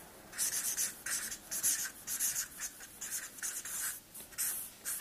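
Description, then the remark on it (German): A thick pen scratches across paper in a steady series of short strokes, fairly loud, with brief pauses between bursts and no talking. “Ich habe ein bisschen, ein bisschen dünnen Stift gewählt, nämlich doch ein bisschen breiteren.”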